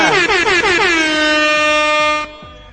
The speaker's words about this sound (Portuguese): Aê, toca a buzininha